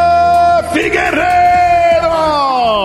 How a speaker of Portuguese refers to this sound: grito de vitória de Davidson Figueiredo quebra o jejum de títulos do Brasil no UFC entre os homens